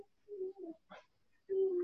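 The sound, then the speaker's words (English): A young girl's voice imitates an owl, giving two short hoots, a brief breathy burst, then a longer sustained hoot, fairly clear. “What does that owl say?”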